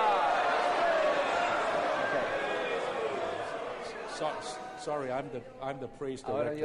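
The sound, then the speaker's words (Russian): A large church audience loudly praises God together, a dense swell of many overlapping voices that gradually thins out before a single person starts speaking near the end. “Это вот шум многих.”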